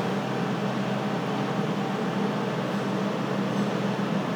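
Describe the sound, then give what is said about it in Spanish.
A tow truck's engine drones steadily outside, next to a house, a continuous low mechanical rumble with a broad hiss that holds an even loudness throughout, with no voices or pauses. “Yo creo que en mi casa se estrelló un carro o algo y están en una grúa al lado de mi casa.”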